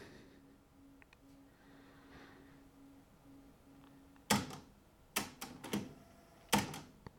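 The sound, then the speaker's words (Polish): A cassette deck rewinding tape after a test recording, probably back to where it began recording: a faint, steady low whirring hum for several seconds, followed by a handful of sharp mechanical clicks and clunks from the deck mechanism. “Przewija prawdopodobnie do miejsca, w którym zaczął nagrywać i teoretycznie teraz można już zacząć nagrywać, ale zobaczmy co nagrał.”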